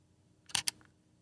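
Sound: camera shutter click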